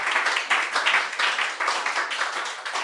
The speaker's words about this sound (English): So I think it's time we had a bit of a round of applause